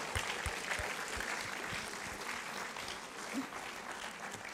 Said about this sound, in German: Geben wir ihm noch äh, einen, einen riesen Applaus.